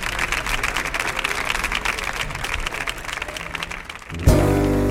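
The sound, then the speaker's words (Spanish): Steady, loud applause from an audience at the Nissan Cartuja stage, a dense crackle of many hands clapping for about four seconds as a duo is welcomed to perform tangos, then a sudden shift as strong low-pitched music begins to play. “Fuerte el aplauso para ellos, vamos a disfrutar, vamos allá.”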